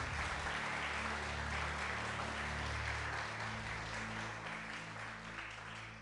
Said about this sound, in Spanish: Gloria al Señor, ¿cuánto le da un aplauso al Señor por eso?